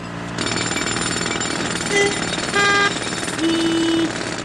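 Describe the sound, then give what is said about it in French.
A loud, continuous jackhammer pounds away at roadworks in Paris in rapid, steady bursts, with a few brief tonal whines rising over the hammering, and no one speaking. “On se dit juste c'est pas possible, car qui dit travaux dit voie bloquée, dit circulation restreinte, dit bouchon, klaxon”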